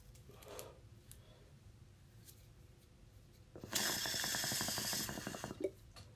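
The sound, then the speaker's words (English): A fairly loud burst of rapid gurgling as water bubbles through a clogged smoking pipe used for weed, a fast rattling stream of bubbles lasting about a second and a half after a quiet stretch. “When you hear the fucking uh, when you hear the fucking um, pipe. that water?”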